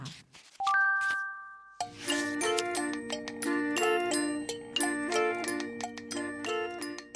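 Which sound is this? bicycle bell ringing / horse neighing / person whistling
bicycle bell ringing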